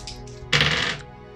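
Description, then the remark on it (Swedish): A brief clatter of four dice being rolled across a hard surface, a dense rattling burst lasting about half a second before settling, with no voices. “Och jag har fyra i rörlighet, så då är det fyra tärningar.”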